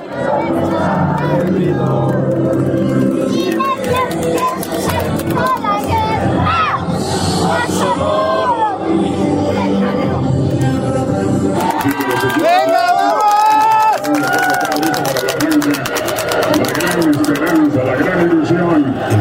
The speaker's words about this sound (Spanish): Empiezan los saltitos, los aplausos nerviosos, los gritos de México.